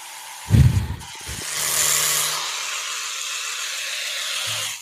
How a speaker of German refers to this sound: Aber der Gamechanger, diese Zahnbürste hört man gar nicht. Macht so ein Geräusch, also ja, ich halte sie mal ins Mikrofon und die alte Zahnbürste im Vergleich dazu